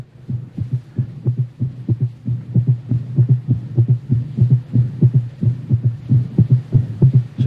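A fast, steady heartbeat of a dying man, paired low thumps repeating loudly throughout over a constant low hum with no voices, from a 1960 radio recording.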